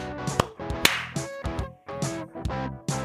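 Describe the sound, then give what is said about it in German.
A sharp hand clap, made right after a spoken countdown, cracks out over a busy tonal background, with a few other brief snapping transients scattered through the few seconds. “Wenn du, wenn du geklatscht hast, dann hat es geklappt.”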